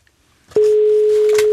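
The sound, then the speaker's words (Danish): A click followed by a loud, steady telephone line tone as a call is placed, holding unbroken to the end, with faint rustling and clicking sounds over it. “Ringer du ikke lige op?”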